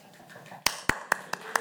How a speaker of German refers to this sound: Applaus. Dankeschön. Sehr gut, sehr gut.